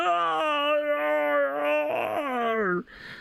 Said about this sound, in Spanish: Cuanto más, viejo, cuanto más viejo eres, más bostezas así en plan león.